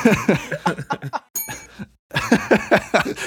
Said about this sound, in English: oh, there's a bell. All right. So, wait, does someone have a bell?